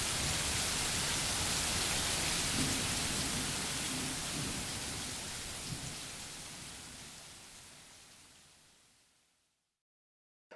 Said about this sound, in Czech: V Česku bouřka no, nepominula, ale už to není tak hrozné. Signál máme zpátky.